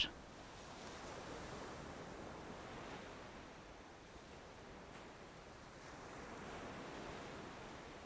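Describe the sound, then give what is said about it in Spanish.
Steady ocean surf rolls in and washes ashore, a broad continuous hiss with gentle swells rising and falling, heard alone without any voices, soft. “Hoy doy gracias por el mar.”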